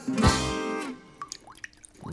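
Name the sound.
water dripping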